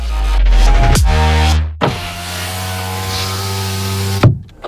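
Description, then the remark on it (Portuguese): A woman slowly opens the power window of a car parked on a street to peek out after someone knocked on it. A steady, fairly loud electric motor whine briefly catches, hums on for a few more seconds and stops with a soft clunk. “Se arrumou ali no banco de trás, colocou roupa molhada mesmo, ajeitou o cabelo, limpou a maquiagem borrada, abriu devagar o vidro para dar aquela espiada.”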